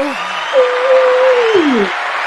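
Steady applause fills the whole stretch, a dense wash of clapping, while a voice lets out a long cheering whoop that slides downward near the end.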